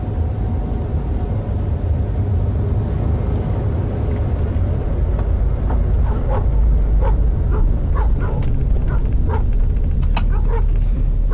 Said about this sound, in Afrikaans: En die moerse brakke? Die goed is so groot soos donkies. Kyk daai flippende tande. Moenie stres nie, hulle lyk maar net so kwaai. Hulle is eintlik hondmak en hulle is mos agter die heining.